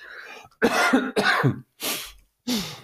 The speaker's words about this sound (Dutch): Jij zit dan net zo te kuchen als ik, zie